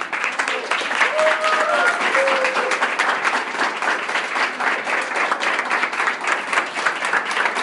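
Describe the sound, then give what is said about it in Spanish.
Loud, sustained applause from a large audience welcoming an executive at a business school in Caracas, dense clapping continuing steadily for several seconds, with a few faint whistles or cheers rising above it early on. “Y de verdad quiero que lo reciban con un excelente y fuerte aplauso a nuestro ejecutivo”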